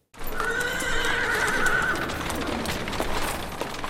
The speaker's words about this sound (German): Die Wiener Innenstadt hört sich im März 1787 noch etwas anders an als heute. Autos gibt es nicht. Und Pferdehufe und Kutschenräder auf holprig steinernem Pflaster ergeben ein epochal anderes Hörbild.